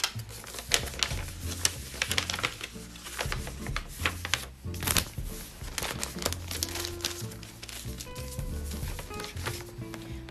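Continuous paper crinkling and rustling as a test kit is slid and pushed into its supplied paper envelope, with sharp crackles and soft scraping over about ten seconds and no speech.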